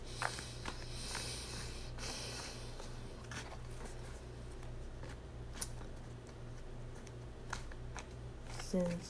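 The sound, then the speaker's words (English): A deck of cards being shuffled: soft, scattered clicks and riffling taps over a steady low electrical hum, with a slightly louder flurry near the end. “This sound right here, I just feel comfortable like when I'm shuffling the, the cards.”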